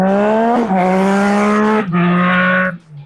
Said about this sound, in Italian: Bella motocicletta, è passata una bella motocicletta.